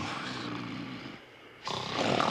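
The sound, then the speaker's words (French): Loud, rough snoring, with a long rasping breath that fades into a brief pause before a second, stronger snore surges back in, with no talking. “Puissant étaient les ronflements”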